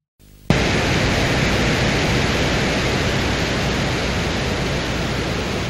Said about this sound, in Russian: Микрофон включился незадолго до посадки. На первой стадии мы можем слышать там шум ветра.